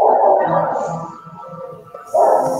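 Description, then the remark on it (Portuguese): A dog barks loudly, with a burst at the start and another near the end, and softer, rapid low yaps or thumps in between. “Tá latindo o cachorro, tá vindo um som é, é foda aí, caralho.”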